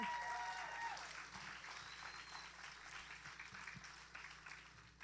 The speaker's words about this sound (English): Go ahead and have a seat and let's give it up for our mamas one more time.